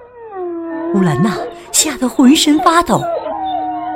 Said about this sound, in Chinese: 天黑了，远处传来了狼群的叫声。